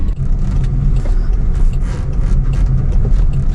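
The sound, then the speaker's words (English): A self-driving car drives away, its steady low engine and road rumble holding fairly loud for a few seconds, with faint rattling above it and no voices. “Oh, it's just stopped in the middle of the road.”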